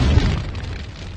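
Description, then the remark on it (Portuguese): A bomb explosion sound effect, played as a 'Moab' bomb: one heavy, booming blast with a deep low rumble that rolls on and slowly fades over about a second. No voices are heard. “Outra informação, solta Moab, fogo no Mututo.”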